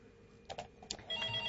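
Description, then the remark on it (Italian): A telephone rings for an incoming call, a steady electronic tone starting after a few short clicks and continuing to the end, moderately loud, with no talking. “Ah, vediamo questa telefonata.”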